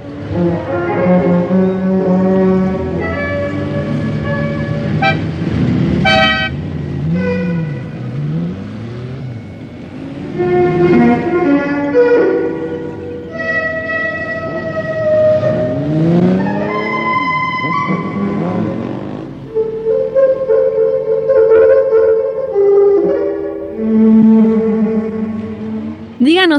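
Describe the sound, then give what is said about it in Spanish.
Electronic music with sustained, buzzy synthetic tones and swooping pitch glides that rise and fall in arcs, playing loudly and continuously throughout, with no voices. “Y esto es un fragmento de una pieza de su autoría ejecutada en su propio secuenciador.”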